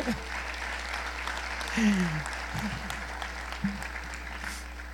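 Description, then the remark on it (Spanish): An audience applauds with a steady wash of clapping that lasts the whole five seconds, while a few voices call out briefly over it. “Pero démosle un aplauso, pues, porque ustedes me tienen.”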